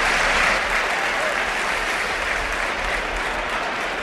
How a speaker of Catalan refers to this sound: L'Arsen marxa realment com, com un heroi d'aquí a Balaïdos perquè s'ha posat tothom d'en peus per, per aplaudir-lo.